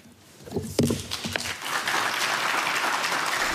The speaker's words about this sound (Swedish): Det är sällan man får höra en applåd också, nu när man inte har fått se så många.